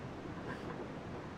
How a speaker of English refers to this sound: that sound could be from anywhere. Maybe I never went to Chernobyl. Who knows? But uh, I'm telling you that this sound is from Chernobyl. So you start to hear something in there. I've met people who said, "Oh, this is the sound of radiation."